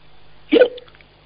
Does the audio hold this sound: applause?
no